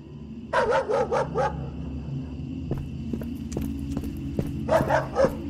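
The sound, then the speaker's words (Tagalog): A dog tied up in a backyard at night, facing a star apple tree, barks in two quick bursts, four sharp barks then three more, with a steady low hum beneath and faint clip-clopping footsteps in between. “Bakit ba kahol ka ng kahol?”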